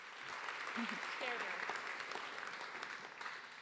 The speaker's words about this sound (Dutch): Dan wil ik je bij deze hartelijk bedanken dat jij bij mij aan tafel wilde zitten vandaag. Een heel hartelijk applaus voor